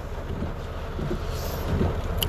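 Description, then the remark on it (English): A heavy rainstorm drums steadily on a car outside a Panda Express, heard from inside the car, a dense, unbroken wash of noise with a deep rumbling low end and no voices. “I'm in my car outside of Panda Express in a rainstorm.”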